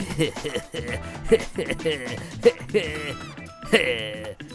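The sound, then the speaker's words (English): A pygmy goat bleats in a series of quavering, wavering cries, fairly loud, running almost continuously for a few seconds with short breaks between calls. “Like right now, I'm heroically subbing in for Kapow, the mechanical pygmy goat, to talk to you about the art of super invention.”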